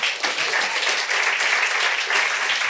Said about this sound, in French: J'aimerais ça qu'on l'applaudisse.